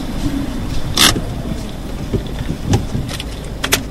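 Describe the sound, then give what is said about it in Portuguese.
A car carrying a box arrives in Malcata, where the return of the Iberian lynx is being prepared, rumbling with a steady low engine drone broken by a few sharp clicks and rattles as it rolls in; no one speaks. “A caixa vem no carro que está a chegar.”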